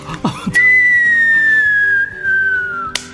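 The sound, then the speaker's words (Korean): A voice imitates a whistling firework bursting in the sky, as if heard from a subway train crossing the Han River railway bridge: a sharp pop, then a long, steady, slowly falling whistle lasting over two seconds, ending in another burst-like pop. A low, soft background hum runs underneath. “폭죽이 팡팡 터지는 소리를”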